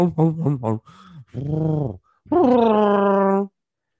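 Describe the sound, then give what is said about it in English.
A man does a vocal impression of Chewbacca, the Wookiee: a few choppy, throaty bursts, then a warbling moan and a long, rising, howling roar, loud with no other talk. “That's, that's Chewbacca.”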